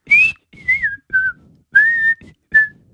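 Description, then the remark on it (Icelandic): A person whistles a short melody in five clear, sustained notes with gentle pitch glides, each separated by brief pauses, fairly loud and with no talking over it. “En getið þið ratta til dæmis þetta stef í flöyti”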